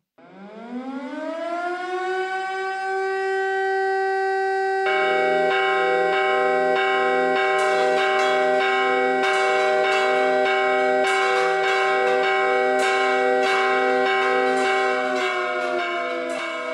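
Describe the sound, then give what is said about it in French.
Church bells rung by priests clang in rapid, insistent tocsin alarm strikes over a loud, steady wailing factory alarm siren that rises at the start and holds throughout; no voices. “Les usines débrayent et activent leurs alarmes pendant que les curés sonnent le tocsin.”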